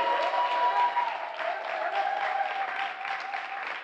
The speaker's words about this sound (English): I would just say that we should really just give a round of applause